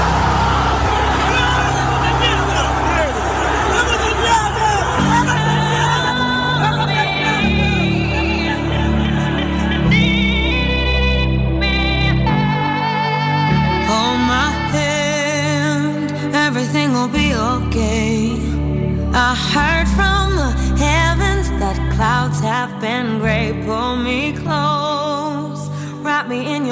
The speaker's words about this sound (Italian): è finita la Roma è la prima squadra a vincere la Conference League il trionfo dei giallorossi in tripudio i tifosi della Roma